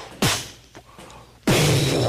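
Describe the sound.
A voice imitates Roman candle firework shots: two sharp, loud bursts about a second apart, each dropping into a hissing, rushing tail, with a faint click between them.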